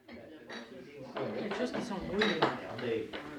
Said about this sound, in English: We start with pub sound again. We do start with pub sound, mm-hmm. which I think is appropriate.